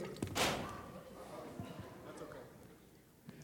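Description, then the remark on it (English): A loaf of bread tips over with a single dull thud and brief rustle near the start, followed by quiet room noise and faint murmuring. “I knocked my bread over.”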